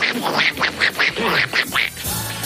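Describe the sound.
A person imitates a duck, letting out a quick run of about seven nasal, raspy quacks in an uneven rhythm, fairly loud, with no other talk.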